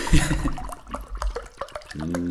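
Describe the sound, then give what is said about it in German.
Still water glugs and splashes as it is poured from a plastic PET bottle into a mug, with irregular gurgling bursts, ending in a rising tone as the mug fills. “Wäre cool, wenn du mir da auch noch was reinschenken ah, Ja, ja, alles.”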